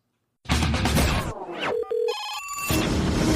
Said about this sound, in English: This is Metal Mayhem ROC, and I think I see the phone ringing. We got a light in the studio.